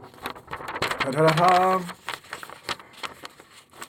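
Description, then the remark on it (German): Paper or packaging rustles in irregular, crinkly bursts of short dry crackles across the whole clip. A brief voiced sound from a person rises in the middle. “Netter Rascheln, wir legen los.”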